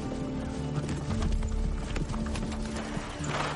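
Hooves clip-clop steadily as a king rides on horseback with a handful of men, the knocking beats overlapping in an uneven rhythm over a low, sustained hum, with an occasional faint snort or whinny.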